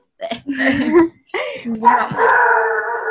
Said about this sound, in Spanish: Y se vinieron todos los animales a la pieza, la gata estaba así. había, estaban dos gatos, dos perros y la gata enojada